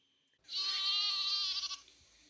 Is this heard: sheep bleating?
yes